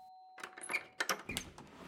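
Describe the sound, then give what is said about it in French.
A doorbell at a front door, rung by a visitor arriving, sounds with a steady electronic tone that fades out, followed by a jumble of clattering, rustling noises with a few short metallic chimes mixed in. “Mais en arrivant devant la porte, j'ai sonné.”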